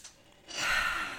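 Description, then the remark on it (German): A single deep, airy breath during a relaxation breathing exercise, swelling after a brief quiet moment into a full, breathy rush of air. No one speaks. “Okay, dann noch einmal atmen.”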